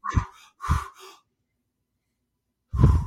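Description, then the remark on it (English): A few forceful, rapid breaths in quick succession, loud, followed by a held pause of silence before another deep breath bursts out: a breathing exercise with breath retention, done for healing. “That sounds like hyperventilating, but it's not. It's about breathing retention and healing.”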